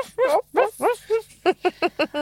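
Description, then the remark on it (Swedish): A dog named Doris, dreaming outside, gives a run of soft, muffled little woofs and whines, about nine short yips, the first few drawn out and the rest quicker and choppier, with no one talking. “Hör du hon ligger och småskäller?”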